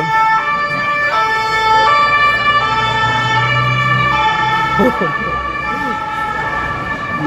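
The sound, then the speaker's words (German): A loud emergency siren of a fire brigade vehicle wails continuously with steady two-tone harmonics, going by outside over road noise, while people laugh and talk briefly underneath. “Das ist die Feuerwehr. Das ist ja wie in New York hier.”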